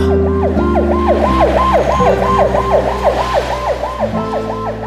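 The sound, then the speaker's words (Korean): An ambulance siren wails in quick, repeated rising-and-falling sweeps over a low engine rumble as the ambulance winds through a maze-like site and moves away. It stays fairly loud, easing off slightly toward the end, with no voices. “구급차가 미로 같은 현장을 돌아 희미하게 멀어져 가는 걸 지켜보며 어금니를 다져물었다.”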